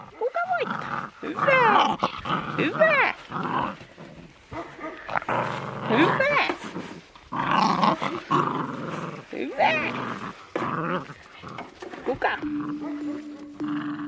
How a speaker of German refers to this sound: 16 Husky-Welpen wuseln um ihre Beine.